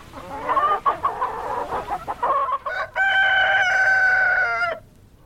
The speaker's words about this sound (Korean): 이게 수탉입니다. 진짜 맞네. 꼬끼요 꼬꼬꼬꼬 이게 암탉이고 꼬끼요 하고 오는 건 수탉이고요. 그리고 수탉이 이렇게 오는 거는 영역 표시래요. 야 여기 내 땅이야. 에, 근처 오지 마. 그런 또 의미라고 합니다.